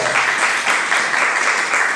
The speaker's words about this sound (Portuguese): Aleluia, aplaudir ao Senhor, amém? Glória a Deus! Aleluia!